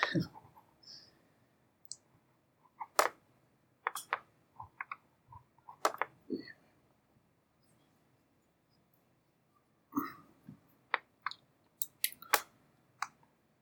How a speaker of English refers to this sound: I think I might have to get like a microphone to pick up the pencil drawings a little bit better.